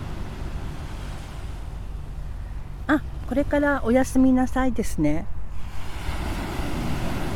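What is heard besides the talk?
ocean waves on shore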